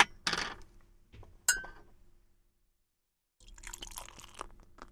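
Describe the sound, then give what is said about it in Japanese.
A bottle of Guillotine beer, a golden ale in a white ceramic-like bottle with a red label, is opened with a hiss and a sharp metallic clink, then after a brief pause the beer is poured, fizzing and foaming steadily. No one speaks. “おお、泡だらけになっちゃった。”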